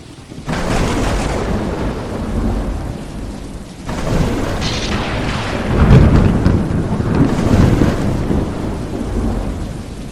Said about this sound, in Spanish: se caracteriza por la aparición de una serie de relámpagos, descargas eléctricas, nube-tierra, tierra-nube y entre nubes de manera casi continua, cuyos truenos pueden escucharse casi ininterrumpidamente si se está presente debajo de la tormenta.